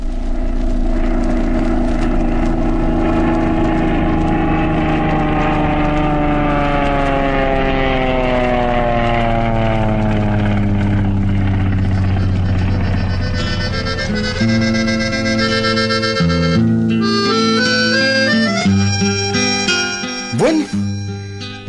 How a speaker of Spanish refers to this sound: la avioneta levantó el vuelo, supuestamente tenía que llegar a Managua unas dos horas después.